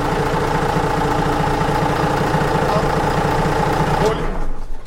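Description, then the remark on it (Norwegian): A boat's port-side diesel engine, just started with the key, idles at a high idle speed, loud and steady with a rhythmic low chugging throb, before the sound drops off sharply near the end. “Jeg hører hvor høy tomgangen er, da.”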